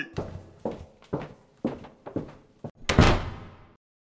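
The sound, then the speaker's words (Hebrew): Several heavy wooden thuds and bangs in quick, uneven succession, ending in one loud door slam that echoes briefly before fading to silence, as Shaul Elovitch, defendant number 2, storms out of a courtroom in anger during a trial. No voices are heard. “בום, טראח, מה זה היה? היו פה שלושה מקרים אה, שבהם שאול אלוביץ' נאשם, נאשם מספר 2 עוזב בזעם את אולם בית המשפט אחרי שהוא שומע דברים שאוזניו לא יכולות לשמוע.”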